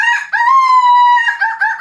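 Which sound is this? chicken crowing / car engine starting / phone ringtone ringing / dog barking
chicken crowing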